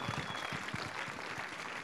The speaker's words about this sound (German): Ja, gebt Jesus einen Applaus, nehmt gerne Platz.